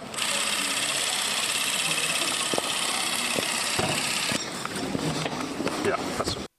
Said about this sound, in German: diese Geräusche der Super 8 Kamera und des Projektors auch sind meines Wissens auch schon inzwischen im Museum gelandet